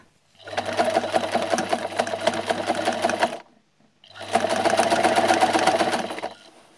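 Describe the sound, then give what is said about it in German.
A Singer sewing machine runs in two bursts of about three seconds each, separated by a brief pause, its rapid steady clatter over a low motor hum, fairly loud with no voices. “hat eine Singernähmaschine gekauft”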